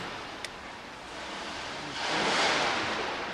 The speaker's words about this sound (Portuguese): O vento mistura-se com um ruído fantasma que atravessa os vidros partidos da sede da Northern Indústrias Metalúrgicas.